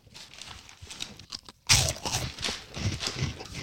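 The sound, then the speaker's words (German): Loud crunching as someone chews crispy fried onion rings, with bursts of crackly bites that start quietly and grow louder partway through, continuing in an uneven rhythm. “Ist heute ein sehr lauter Podcast, glaube ich. Ja, es knuspert viel.”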